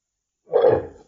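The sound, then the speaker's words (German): A single deep, rumbling burp that starts abruptly after a moment of silence, holds for about half a second, then trails off. No one speaks. “Oh, ja, Rübser.”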